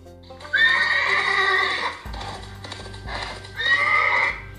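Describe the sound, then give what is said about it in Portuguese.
A horse whinnies loudly, a shrill, quavering neigh lasting over a second, followed by a low rumble and snorting before a second, shorter whinny near the end. “O cavalo relinchou.”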